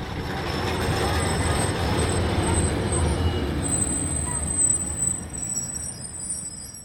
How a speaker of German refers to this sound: Die Bahn ist voll, die Luft ist warm, die Fenster der Tram sind geschlossen